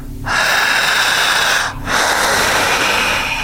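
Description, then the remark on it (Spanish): Two loud, forceful inhalations drawn sharply through the nose, each lasting over a second with a brief pause between, harsh with no talking. “Jalando el aire fuerte.”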